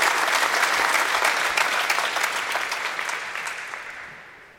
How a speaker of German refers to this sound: Ja, einen schönen guten Morgen aus Wolfsburg, wo gerade das äh, öffentliche Training läuft. 1500 äh, Zuschauer sind doch gekommen und äh, Buhrufe gab es nicht äh, für oder gegen Hansi Flick, sondern tatsächlich aufmunternden Applaus.